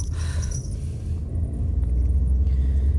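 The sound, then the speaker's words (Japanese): Steady low rumble of a car interior while driving, recorded with a clip-on microphone, a constant deep drone with some faint higher hiss of road and air noise, no voices present. “これ、いつものようにピンマイクつけながら運転中のラジオトークなんですけども、うん。”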